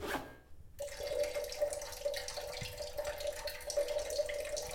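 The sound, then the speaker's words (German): A steady stream of liquid splashes continuously, a man, a secret-agent dubbing voice actor, urinating into a toilet, with a faint hissing texture and a thin, sustained tone running underneath for several seconds without pause. “…, aber auch ein Geheimagenten-Synchronsprecher muss mal pinkeln.”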